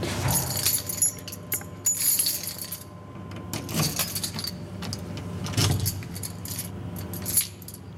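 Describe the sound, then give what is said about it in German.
A bunch of too many keys jangles and clinks in repeated bursts over several seconds, with metallic rattling as someone fumbles at the door lock of a laboratory area in a clinic. No one speaks. “Zu viele Schlüssel.”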